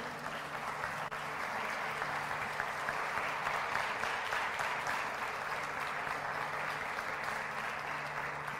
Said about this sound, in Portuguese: Você pode aplaudir o nome dele por tudo isso?